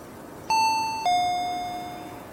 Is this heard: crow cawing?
no